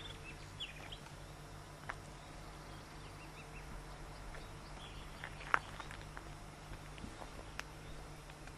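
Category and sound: bird, birds chirping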